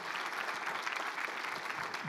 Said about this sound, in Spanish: ¿Cuántos le pueden dar un fuerte aplauso al Señor porque podemos ver?